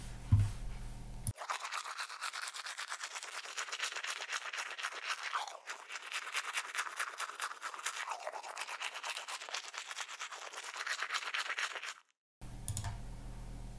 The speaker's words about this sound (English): Zähne putzen. Brushing teeth. Zähne putzen.